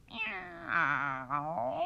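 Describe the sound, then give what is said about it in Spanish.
A person playing an animal-sounds game imitates a large cat's meow, one long drawn-out, wavering yowl with strong harmonics, voiced loud with no other sounds around it. “la paloma, la gallina asustada y el gato grande.”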